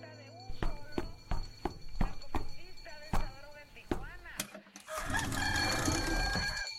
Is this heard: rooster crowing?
yes